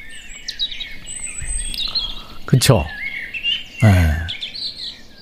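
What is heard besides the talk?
birdsong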